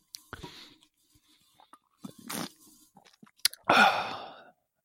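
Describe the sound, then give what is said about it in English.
Someone sips a beer right up against the microphone, with small wet slurps and mouth clicks, then a loud, breathy sigh after swallowing. No talking. “So all if the- I'd have a sip of my beer, it would be this would be ASMR.”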